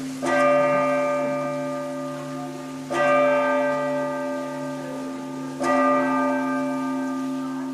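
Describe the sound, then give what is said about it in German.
The bells of the collegiate church (Stiftskirche) in Berchtesgaden toll three times at a slow, steady pace, each strike loud, with long rich harmonics ringing on and overlapping between strokes. No voices are heard. “So, und jetzt könnt ihr sogar die Stiftskirche hören.”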